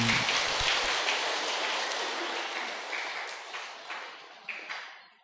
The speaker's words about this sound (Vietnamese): cho thêm chàng pháo tay thiệt lớn cho cô ừ.